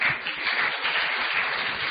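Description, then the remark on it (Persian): Sustained audience applause, a dense, even wash of many hands clapping at a steady loudness for the full two seconds, with no voices standing out. “واقعا مرسی تشویق کنید”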